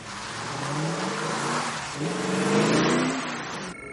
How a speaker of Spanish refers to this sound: Chris saca un coche de su aparcamiento y acelera por una calle desierta.